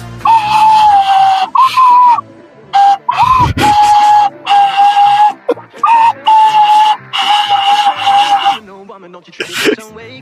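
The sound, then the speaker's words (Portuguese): A series of short, steady-pitched whistles sounds loud, repeating with brief gaps, some tones dipping slightly, followed by a breathy burst near the end. “Você fez aquele assobiozinho é com a mão?”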